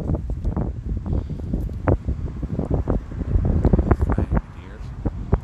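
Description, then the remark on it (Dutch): Gusty outdoor wind on a sunny day buffets the microphone in continuous low, rumbling bursts, with muffled voices faintly audible beneath the roar. “En wind en heel veel zon.”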